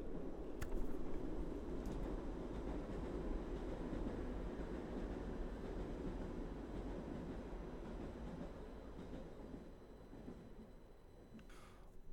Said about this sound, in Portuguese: E olha o comboio.